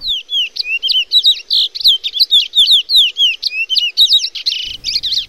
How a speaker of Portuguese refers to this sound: Só que a, o grande tchan aí é que dependendo da região ele tem um, uma voz, um sotaque, vamos dizer assim, né? Então vamos ouvir agora primeiro o curió paranaense.